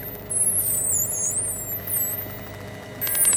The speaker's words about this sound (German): Delfine Streifendelfine. Wir gehen nach draußen, wo die Tiere ums Boot herumspringen. Die Menschen an Bord sind verzückt von den springenden Delfinen. Es sind Dutzende. Sie schwimmen ganz nahe am Bug und manchmal drehen sie den Kopf und schauen hoch.